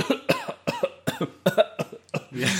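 A rapid series of about eight sharp coughs in an irregular rhythm, followed by a longer raspy, wheezy exhale, from the audience at a comedy performance in a cultural centre in Velenje, Slovenia, in February. No one speaks.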